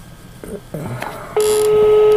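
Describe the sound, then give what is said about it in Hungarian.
A loud, steady telephone beep tone starts partway through and holds without a break to the end, following a few brief, muffled vocal sounds. “esetleg csak az, hogy most kell felvenni a telefon?”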